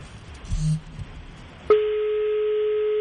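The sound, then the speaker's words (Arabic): A telephone line tone, a call dialing and ringing on air during a live broadcast, starts abruptly partway through and holds steady and fairly loud to the end, after a stretch of low background noise with a brief low hum. “طلع على الهواء باتصاله عادي يخلي يدق على الهواء”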